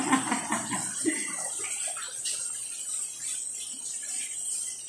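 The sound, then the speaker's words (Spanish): Heavy rain pours down in a steady, dense hiss that holds even throughout, with a voice briefly talking underneath it at the start. “Y como pueden escuchar, el cielo está cayendo, dicen.”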